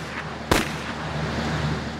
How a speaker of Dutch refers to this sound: Jorès krijgt een pistool tegen zijn achterhoofd. De weer klinken twee schoten.